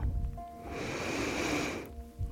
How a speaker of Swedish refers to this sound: Vi börjar med tre djupa andetag. Andas in.